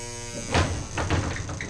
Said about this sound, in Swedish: Stegen stannar alldeles innanför dörren. Du hör ett lås, så här, låses upp. Och långsamt öppnas dörren utåt.